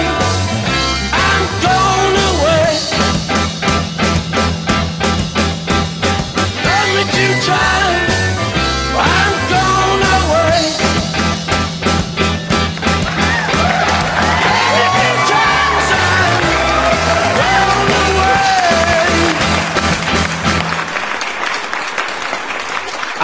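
A crowd claps and cheers loudly over the closing bars of a song, with whoops rising as the music winds down and stops near the end.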